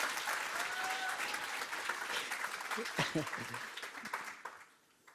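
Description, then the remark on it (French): Sustained audience applause at a church baptism gathering, welcoming a person being baptised, a dense wash of clapping that holds steady for several seconds, with a few voices calling out over it, then fades quickly near the end. “Est-ce que je peux vous entendre encore l'honorer par vos applaudissements”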